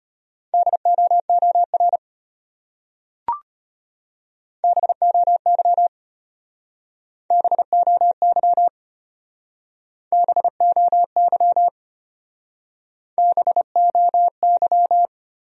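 Morse code beeps at a brisk 25 words per minute, sending words from a list of the top 300 words: five short bursts of a steady mid-pitched tone, each a quick run of dots and dashes separated by pauses, with one sharp click early on.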